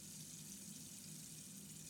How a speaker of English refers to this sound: The water again? Yeah. It's like a waterfall. The way it flows.